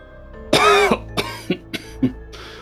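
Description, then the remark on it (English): A voice imitates a wet, gurgling cough: one strong, rough burst followed by several shorter, choppy coughs, fairly loud with no talking. “And as you see those figures stepping through it, the individual on the ground, uh, you hear a gurgle come from his, his direction.”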